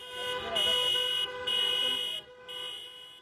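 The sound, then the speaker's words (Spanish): Loud car horns blare in long, overlapping blasts, three sustained bursts separated by brief gaps, as thousands of taxis honk together in protest through the centre of the capital amid street noise. “A golpe de claxon, miles de taxis han protestado hoy por el centro de la capital.”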